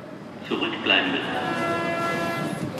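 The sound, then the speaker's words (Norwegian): A U1 metro train in Kreuzberg, Germany, locally called the Orient Express, rolls past, a steady rushing rumble that swells after the first half-second and holds, with a thin whining tone riding on top. “og T-bane U1, e som går hit til Tår blir på folkemunne kalt Orientekspressen.”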